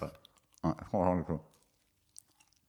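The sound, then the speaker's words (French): Someone chews a macaron very close to the microphone, with soft, wet mouth clicks and a drawn-out, appreciative hum in the middle, then faint scattered chewing sounds trailing off. “c'est la partie ASMR macaron de. Tu la sens la texture hein, du macaron.”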